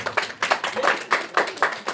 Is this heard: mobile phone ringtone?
no